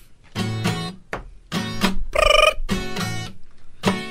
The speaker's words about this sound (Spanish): Suena un teléfono en la suegra telefonista.